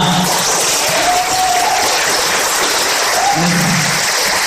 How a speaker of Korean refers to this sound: 왕강사인 것만큼 여러분들 박수와 함성을 어, 왕처럼 크게 아, 왕처럼이라고 두배 정도 크게 이렇게 쳐주시면 네, 또 귀한 어, 좋은 강의를 해주실 것 같습니다.